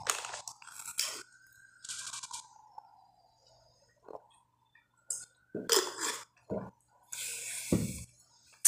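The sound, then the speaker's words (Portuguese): Someone takes a drink of water, with crinkly bottle handling, a brief sipping trickle and a few soft gulps and clicks spread over several seconds, with no talking. “Hum, desculpa, gente, deixa eu beber um pouco d'água.”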